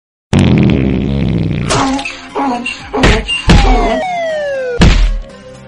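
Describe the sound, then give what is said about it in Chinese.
A donkey brays loudly in harsh, rasping bursts, its pitch sliding up and down through several heaving cries before trailing off at the end. “对了，我想起来了，得驴叫唤，只要驴叫几声，王八就松口了。”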